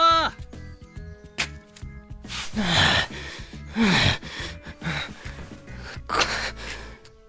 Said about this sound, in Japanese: こんな登るなんて聞いてないんだけどだらしねえなこんな小さい山でヒーヒー言ってて大丈夫かよいやち小さい山じゃないでしょ